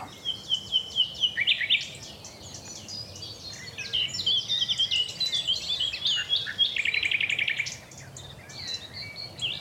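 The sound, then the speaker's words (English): A nightingale sings a rich, varied song of trills and rapid whistled phrases, tangled with the chirps of several other birds in a busy outdoor chorus, with faint insect buzzing beneath. “And I want to leave you with as much nightingale as I can fit in, even though. so many other birds are trying to drown him out.”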